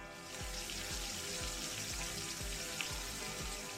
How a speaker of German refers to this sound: Wir frittieren jetzt die Toastscheiben in Butterschmalz in einer Pfanne, bis sie goldbraun angebraten sind. Wenn ihr aber keinen Butterschmalz habt, könnt ihr auch Frittieröl benutzen.